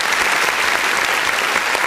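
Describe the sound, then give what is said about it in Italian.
A steady burst of applause played as a sound effect, many hands clapping densely together at a fairly loud, even level for the full two seconds, with no voices standing out. “si merita quasi un applauso ovviamente se lo merita”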